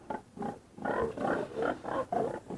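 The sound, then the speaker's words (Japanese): A herd of pigs grunts and snorts in a quick, uneven series of rough bursts, fairly loud, with no one talking over them. “豚の世話か私が豚の群れの雇い人になってしまったかも豚の方が私よりもうまいものを食べている”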